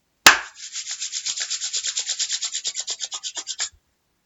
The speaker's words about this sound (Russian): силой хлопните в ладони и разотрите друг от друга, чтобы стало горячо.